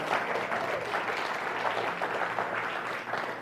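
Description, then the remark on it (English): A crowd applauds steadily for everyone who shared and for a mission team, many hands clapping in a dense, even wash of sound that holds at a constant level throughout without any voices. “How about another round of applause for everyone who shared and for our mission team?”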